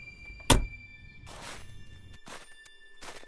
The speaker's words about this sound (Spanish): El completo silencio que le siguió fue perturbado por el sonido de la puerta del auto cerrándose y las consiguientes pisadas sobre la nieve, acercándose a la casa.